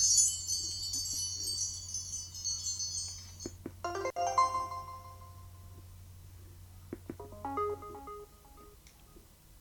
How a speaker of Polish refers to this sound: O, tu mam takie dzwoneczki. Tak.